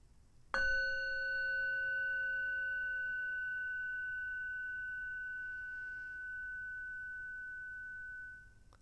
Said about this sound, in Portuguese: E quando você ouvir o som do sino, gentilmente abra os olhos.